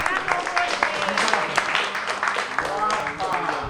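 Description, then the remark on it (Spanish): Steady applause from an audience welcoming a person being introduced, some even doing the wave, a dense wash of clapping mixed with overlapping voices and cheers, holding fairly even in loudness throughout. “Bueno, pues le damos un aplauso.”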